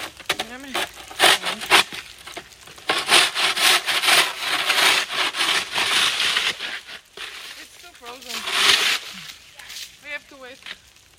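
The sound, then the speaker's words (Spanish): Ice being scraped off a car to get it out of the garage, on a completely frozen street: repeated harsh, gritty scraping strokes in an uneven rhythm, fairly loud, with people talking briefly between and over the scrapes. “Y es que está completamente congelada la calle para sacar el coche de la cochera.”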